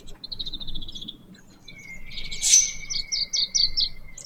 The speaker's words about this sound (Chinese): 我今天早上其实觉得那个，我一开始的时候觉得那个雄鸟叫，我以为是真的是小鸟出来了，就是它在叫小鸟出巢呢。结果没想到是它在在预警